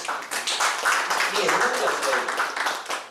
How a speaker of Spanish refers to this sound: Denle un aplauso al Señor, hermano.